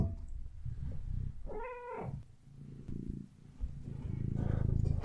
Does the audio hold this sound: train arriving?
no